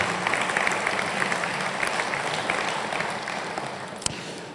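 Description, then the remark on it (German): Steady applause from an audience, a dense wash of many hands clapping at an even level throughout, with one sharper knock near the end. “Ja, dann komm, einer ab, einer klatscht, dann könnt ihr auch noch mehr machen.”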